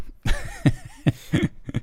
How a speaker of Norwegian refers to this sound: Nå kjenner jeg Hosten begynner å komme.